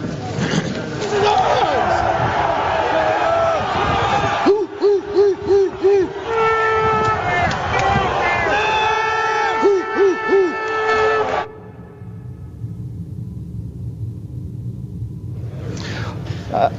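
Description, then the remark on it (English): A loud crowd of protesters inside a legislative building shouts and chants in rhythmic, repeated bursts that echo through the House chamber, then the noise abruptly drops to a quieter background murmur. “We'll pause. Protesters are in the building.”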